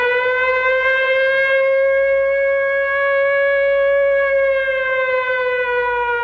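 A loud siren wails continuously for several seconds, holding a steady, slightly wavering pitch with a harsh, buzzy tone, interrupting what begins like a familiar brand's advertisement in an Amnesty International campaign ad. No one speaks over it.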